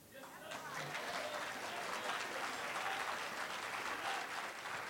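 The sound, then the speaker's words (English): A large audience bursts into sustained applause after a speech, dense clapping rising quickly and holding steady at full volume for several seconds, with faint cheers mixed in. “Sean Smith, everybody, let him hear it”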